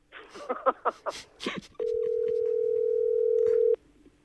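A few seconds of people talking, then a steady, unbroken telephone dialing tone as a call is placed holds at one mid pitch for about two seconds before cutting off abruptly.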